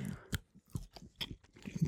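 Crisp chewing and biting noises of a dry, very spicy salami with thin skin being bitten off, a run of irregular crunchy bites and wet mastication sounds over about two seconds, fairly quiet, with no talking.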